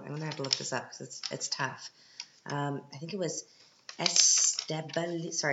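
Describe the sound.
Crinkly paper rustling and handling sounds come in short bursts beneath a person speaking, briefly louder toward the end.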